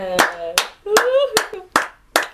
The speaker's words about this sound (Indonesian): Tepuk tangan semuanya